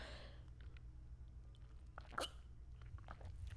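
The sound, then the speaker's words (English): A dog grabs and bites at a pillow early in the morning, with a few scattered soft crunching, chewing sounds and one sharper burst near the middle, over a steady low background hum. “This dog really just took my pillow right now.”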